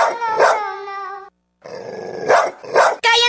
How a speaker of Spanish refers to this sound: ese perro! ¡Ya me tiene harta!